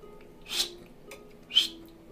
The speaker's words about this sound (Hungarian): egy érzékelés, hogy halljátok a fütyögést.